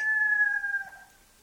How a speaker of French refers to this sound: Un coq Un coq Vous entendez Regardez. Ça y est. Le jour se lève.